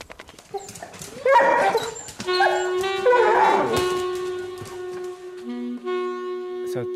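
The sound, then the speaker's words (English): Dogs whimper and yip in short excited bursts, then a long, steady high-pitched whine draws out over the last few seconds, rising briefly near the end, with no talking. “And uh, hopefully, 62 days later, I'll have a lovely litter of puppies.”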